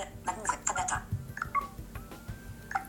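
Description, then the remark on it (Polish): A rapid series of short, bright electronic ticks and beeps from a smartphone, clustered irregularly as the settings list scrolls by automatically, faint, with some quiet speech-like sounds mixed in. “To właśnie był e, przewijanie listy. Takie automatyczne przewijanie listy.”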